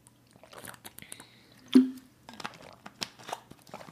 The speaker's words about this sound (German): Erstmal trinke ich einen Schluck, dann gebe ich einen Tipp und dann trinke ich noch einen Schluck.